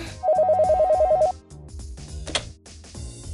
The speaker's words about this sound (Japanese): お電話ですねこのパターンはろくなことがないんですよね